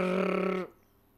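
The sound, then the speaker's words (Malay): A voice imitates an out-of-tune snare drum with one loud, buzzy hum that holds steadily for over half a second, then cuts off abruptly into quiet. “Kalau snare drum tu bunyi per,”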